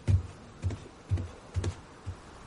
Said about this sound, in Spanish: Por la noche en casa de Gruñón, este corta rápidamente alimentos. La cena ya casi está lista.